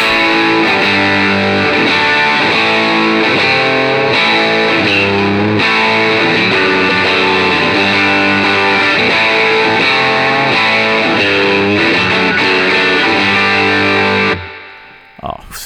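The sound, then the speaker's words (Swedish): A heavily distorted electric guitar, played through a distortion pedal at full gain with its settings in a V formation, plays a loud, saturated sequence of chords with a thick, buzzing tone, ringing out steadily for about fourteen seconds before cutting off abruptly. “För sen ska jag göra en grej till, men vi ställer v formationen så drar jag full gain här.”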